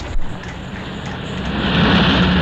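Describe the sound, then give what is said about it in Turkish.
A car roars past at speed, its engine noise and broad road rush swelling louder toward the end, with no voices present. “E işte bak bu giden iyiydi. O, çok hızlı gidiyordu bu.”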